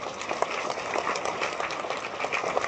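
An audience at an event in Taiwan claps steadily, a dense, even patter of many hands sustained throughout with no voices, bright and crackly with small swells in loudness.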